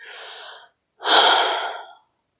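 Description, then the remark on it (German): A deep breath: a softer airy intake is followed after a brief pause by a longer, louder rush of breath lasting about a second, with no talking. “Wirklich tiefe Atemzüge zu nehmen, zum Beispiel bevor man einen Raum betritt, wo Leute sind, die man noch nicht kennt.”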